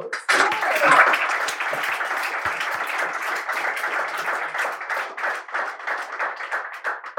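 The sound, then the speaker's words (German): Sustained audience applause, a dense crackle of many hands clapping that swells at the start and holds steady for several seconds before thinning slightly, with no voices over it. “So nämlich. Applaus.”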